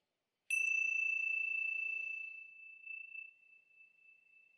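ting Sha bell ringing

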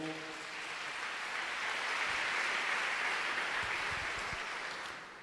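audience applauding

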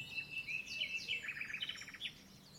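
birds chirping

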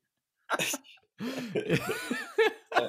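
cough

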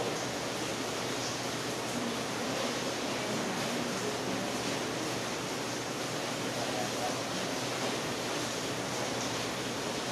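heavy rain

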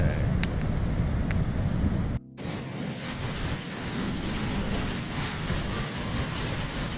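metro train running

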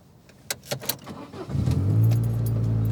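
car sound effect

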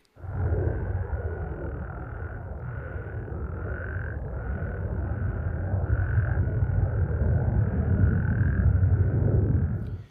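frog chorus

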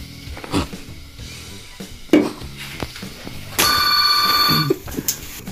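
telephone ringing

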